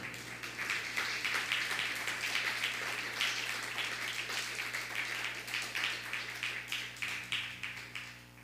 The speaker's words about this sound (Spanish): Dale un fuerte aplauso a República Dominicana.